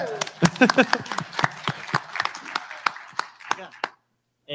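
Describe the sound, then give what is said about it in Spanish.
Sharp, uneven handclaps from a small audience patter for about four seconds, with a brief cheer of voices near the start, then stop abruptly. “tenemos eh, aplausos, gente.”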